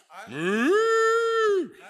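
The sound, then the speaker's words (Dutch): A single loud cow moo that rises in pitch and holds a steady, strongly harmonic tone for over a second before dropping off. “Misschien moet ik, met toch wat heilige koeien aan het slachten. Zal ik er nog een slachten?”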